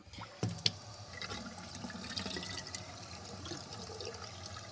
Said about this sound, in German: Jetzt werden wir den Wasserhahn aufdrehen und schauen, ja. ob die Sache fließt.